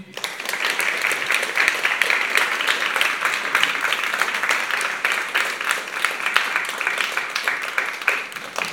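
A room full of people breaks into sustained applause, a dense rattle of many hands clapping at steady loudness for several seconds without letting up.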